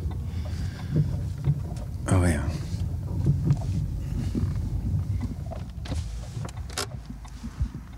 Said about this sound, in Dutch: Even kijken hoor, waar we hem neer kunnen zetten. Kijk, hier is het bij het bruggetje. Kijk, we gaan de auto even wegzetten.